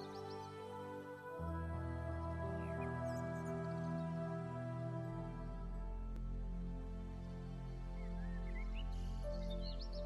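Soft, sustained orchestral music with low swelling strings, while a few light bird chirps and tweets drift in faintly above it now and then.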